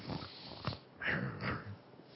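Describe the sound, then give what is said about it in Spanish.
A person's voice growls like a little dog: a few short, rough, breathy snarls and snorts, moderately loud, with no words spoken. “No, no estás roncando. Estás, estás como el perrito. Estás, estás gruñendo.”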